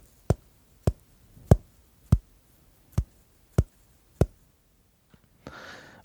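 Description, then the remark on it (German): Seven sharp knocks on a window at around one in the morning, evenly paced with quiet gaps between them, followed by a brief soft breathy rustle at the end. “Und irgendwann ist er dann halt auch eingeschlafen und gegen ein Uhr morgens äh, hörte er, wie etwas an das Fenster klopfte.”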